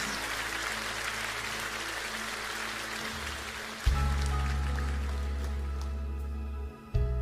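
An audience applauds, a dense, steady clatter of many hands clapping throughout, joined midway by a low sustained organ or keyboard chord that lingers under the applause.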